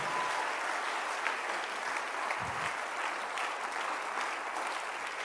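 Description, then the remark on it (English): A large group claps hands steadily, a dense, continuous wash of applause that stays at an even, fairly loud level throughout, with no voices standing out, an audience clapping at a preacher's call during a church service. “If you are a sin shifter, clap your hands right now and give God.”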